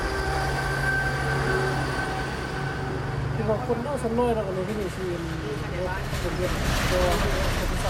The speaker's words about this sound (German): Nicht weit entfernt ertönt das Warnsignal des neuen Schnellzugs.